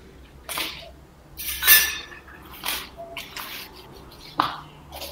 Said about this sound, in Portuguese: porque ele tá fazendo alguma coisa na cozinha, porque tem um é. barulho de xícaras, um negócio desse.